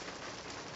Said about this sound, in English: Sorry if you can hear in the background, it's pouring rain when I'm driving.